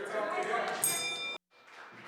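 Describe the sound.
In the British Columbia legislature, a bright, ringing bell marking the end of question period sounds for about half a second over people talking, then cuts off abruptly. After a brief silence, quieter murmuring voices continue.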